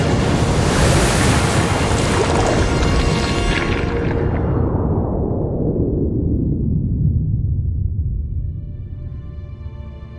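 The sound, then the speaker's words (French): A stormy sea spins faster and faster into a whirlpool, the Maelstrom, a loud, continuous roar of rushing water and wind whose hissing top gradually sinks away, leaving a deep rumbling swirl by the end. No voices. “Maelstrom la mer, déjà mauvaise, se met à tournoyer de plus en plus vite. Elle forme un tourbillon qui se transforme en trou, puis en gouffre.”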